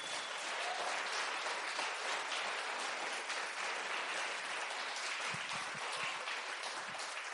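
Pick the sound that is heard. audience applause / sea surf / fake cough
audience applause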